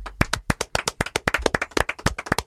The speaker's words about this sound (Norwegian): Og applaus til hovedmannen her, da.